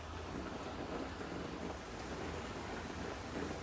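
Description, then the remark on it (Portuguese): Steady, dense rain pours continuously during a thunderstorm, with a low rumbling undertone beneath the hiss. Nobody speaks. “Vou aproveitar o resto da tempestade para criar uma música, talvez.”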